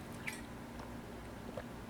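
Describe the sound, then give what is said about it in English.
Someone quietly sips a drink, with a couple of soft, wet mouth sounds and swallows against low background hum; no one speaks. “I'm gonna take a sip of my drink real quick.”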